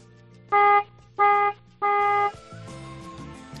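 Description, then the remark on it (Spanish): Three short, loud car horn honks from a Citroën in quick succession, the last one held slightly longer, followed by quieter background sound. “vamos a darle tres toquecitos cortos, Luna, a ver cómo suena ese coche”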